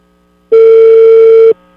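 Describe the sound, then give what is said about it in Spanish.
A single loud, steady electronic telephone busy-signal beep lasting about a second on an outgoing call, clear, with quiet before and after and no voices. “Te este va a todo andar ocupado.”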